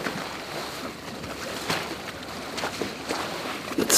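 A continuous rushing, sloshing wash of water as a boat is pulled through it behind the speaker in the evening, steady, with occasional splashy surges and no voices.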